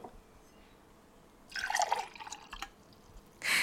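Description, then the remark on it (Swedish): Water is poured into a glass in a short splashing burst lasting about a second, followed by a brief rushing splash at the end; quiet, with no talking. “om det är varmt eller kallt vatten som hälls upp i ett glas”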